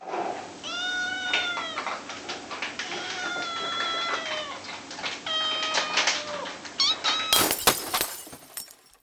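A kitten meows repeatedly in a series of high, drawn-out mewling cries, followed near the end by a sudden burst of rustling noise.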